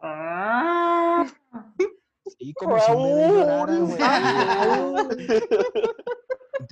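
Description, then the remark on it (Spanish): A person vocalizes a long, strained, wavering cry imitating a distressed cat, loud, followed by laughter and excited talking. “tú has oído los gatos así cuando están así como que muy apurados o muy presionados, güey.”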